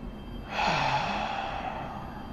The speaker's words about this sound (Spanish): Así que ahora te pido que tomes una respiración profunda y lo dejes ir en un suspiro. Inhala una vez más. Y déjalo ir.